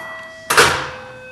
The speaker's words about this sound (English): sorry, I was opening the door.